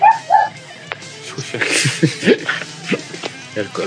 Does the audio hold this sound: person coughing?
no